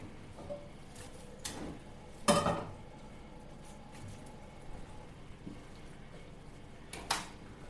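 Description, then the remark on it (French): A few scattered metallic clanks and knocks of a stainless steel saucepan being handled, the loudest a ringing clatter near the start, with another clank at the end over a quiet background. “Pour euh, ce plat, moi j'utilise une casserole en inox qui fait très bien l'affaire.”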